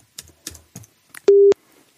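A few soft taps like buttons being pressed on a phone, then a loud, steady telephone tone that holds for about a quarter second and cuts off. No one speaks.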